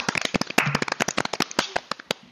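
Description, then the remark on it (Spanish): A small group claps in brief applause for a team of boys named El burrito Juan, sharp overlapping claps in a quick, uneven patter, fairly loud, with no talking. “Un aplauso, un aplauso para ellos.”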